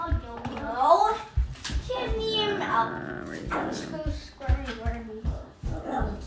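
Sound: dog whining and barking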